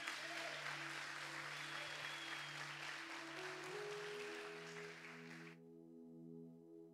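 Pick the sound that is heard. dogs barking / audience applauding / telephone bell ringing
audience applauding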